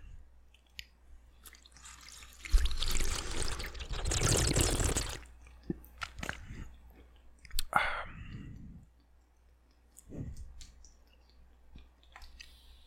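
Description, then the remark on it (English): Wet lapping and dripping sounds of a cat drinking a person's drinking water, with a louder splashy stretch early on followed by scattered small clicks and slurps. “You gonna give him a drink of your water? That's disgusting.”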